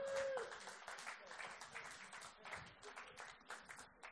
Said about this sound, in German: Geben wir ihnen einen Applaus.